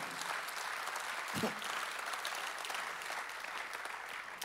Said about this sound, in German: Lasst uns Gott einen Applaus geben.